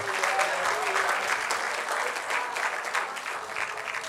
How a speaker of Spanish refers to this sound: ¿Cuánto da un aplauso de alabanza al Señor?